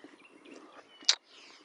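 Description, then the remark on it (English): Birds chirp faintly in the background, with one sharp, high chirp standing out briefly near the end against a quiet, hushed setting. “The birds are at it this time, too.”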